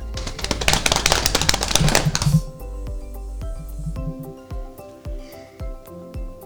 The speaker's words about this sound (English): Today's trivia question is Drum roll, please.